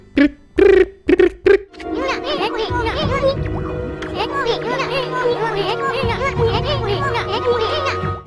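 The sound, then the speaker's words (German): Video game gibberish voices used in place of voiced dialogue: a few quick, separate syllable bursts, then a steady stream of high, bouncy nonsense chatter from several overlapping cartoonish voices, with no real words. “Denn wenn im Spiel gesprochen wird, dann hört sich das ungefähr so an.”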